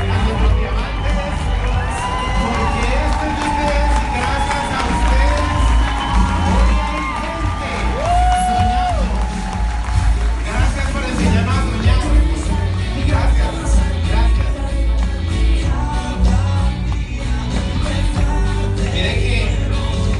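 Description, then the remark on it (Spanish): A large crowd claps and stomps their feet in a steady, loud roar lasting about twenty seconds, mixed with cheering, whoops and children's excited shouting throughout. “Entonces vamos a aplaudir y vamos a seguir con los pies.”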